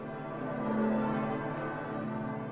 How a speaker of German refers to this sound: 500 Jahre alte Glocken. Das ist keine Seltenheit.